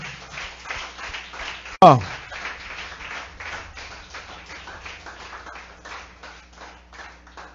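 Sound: applause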